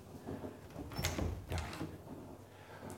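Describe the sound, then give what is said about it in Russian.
A door is opened with a short scrape and a couple of soft knocks and clatters, followed by quiet room noise. No one speaks. “Давай я тебе дверь открою, иди”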